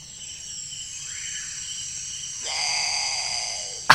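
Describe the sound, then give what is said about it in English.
A great potoo's call played back through a small phone speaker: a drawn-out, bleating moan that swells halfway through, over a steady high insect-like hiss, with no one talking. “I'll play the noise through my phone.”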